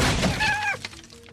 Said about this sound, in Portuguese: Vocês estão lá conversando, discutindo, de repente escuta um barulho de uma cadeira se jogando contra uma parede e se partindo em vários pedaços.